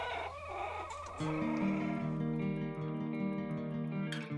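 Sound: chickens clucking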